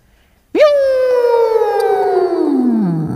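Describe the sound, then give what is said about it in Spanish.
A voice imitates a Scalextric racing slot car: a sudden high whine that rises sharply, then slowly sinks in pitch over about three seconds, loud and steady with no other talk. “Antes he hecho un coche en el Scalestri.”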